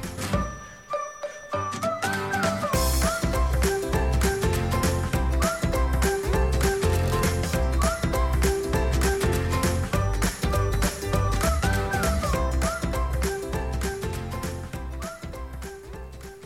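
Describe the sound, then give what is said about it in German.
A loud, full-band musical jingle with steady driving beats and bright melodic lines plays alone for about fifteen seconds after a brief quiet start, with no voices over it. “Dann haben wir diesmal schon den Jingle gehört”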